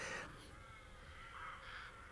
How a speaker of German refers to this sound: Was haben die Raben nur? Streit.